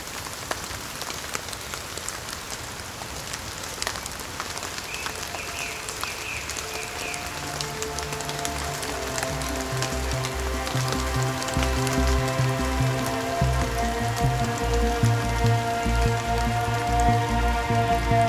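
Steady rain patters on a hard surface at the upper gun battery of a fort in a dense, continuous hiss, while a musical tone swells in gradually and grows louder beneath it.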